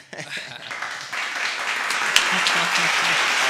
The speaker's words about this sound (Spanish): Aplausos.